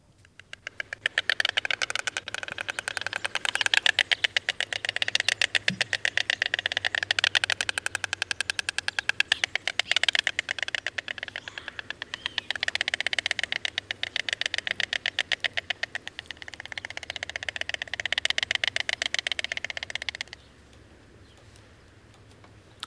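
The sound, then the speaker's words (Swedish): White stork bill clattering, as the birds make at the nest when greeting each other: fast, dry, wooden rattling in several long loud bursts that rise and fall for about twenty seconds, then stop, leaving only faint background noise. No one speaks. “Ja, det här klappret så hör man när fåglarna är på boet. När de hälsar på varandra så har de ett sånt här klapper för sig.”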